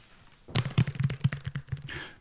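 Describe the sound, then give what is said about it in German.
A quick burst of touch typing on a mechanical computer keyboard, with crisp, clacky keystrokes in an uneven rapid rhythm, fairly loud, lasting under two seconds with no talking. “Mit der tippt man so wie früher. Das heißt, man weiß, wenn man den Buchstaben erwischt hat.”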